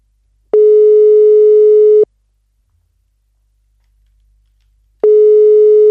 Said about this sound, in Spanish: Le estoy haciendo una llamada, ¿vale, amigos? Y aún así no lo coge.